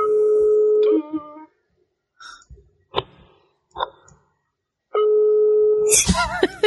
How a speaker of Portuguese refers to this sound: olha lá, tá até tocando o telefone dele, olha lá. Não, é o meu que tá no Viva Voz.